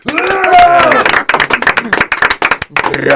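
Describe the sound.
An audience at the Couscous Social Club show applauds a new performer being welcomed, with dense, steady clapping for about three seconds, loud throughout, while a voice talks or calls out over the clapping.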